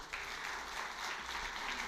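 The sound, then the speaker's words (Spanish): An audience bursts into steady applause for God, a dense wash of many hands clapping at an even loudness for about two seconds, with no voices standing out. “Yo le daría un aplauso a Dios por eso.”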